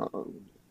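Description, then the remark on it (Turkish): A single sneeze: a short catch of breath, then a sharp, forceful burst that trails off quickly, with no one speaking during it. “çok yaşa.”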